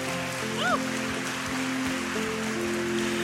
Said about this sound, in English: Now let's give God one more hand clap of praise this morning.